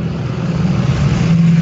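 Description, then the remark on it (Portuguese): A heavy truck rumbles past on the street outside, its deep, steady engine drone filling the brief moment loudly and evenly, with no voices over it. “Eu acho que passou um caminhão na minha rua, mas tudo bem”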